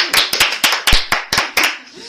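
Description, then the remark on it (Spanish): Applause from a group, a steady run of sharp claps in an uneven rhythm lasting a couple of seconds, fairly loud, with faint voices mixed in. “un aplauso para el pie que no tiene miedo de ponerse en el cañón.”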